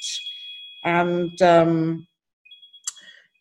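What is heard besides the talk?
mobile phone notification sound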